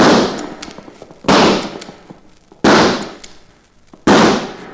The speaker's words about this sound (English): You got yourself two gobblers. You call that nice shooting, Judge? Shot four times and only got two birds.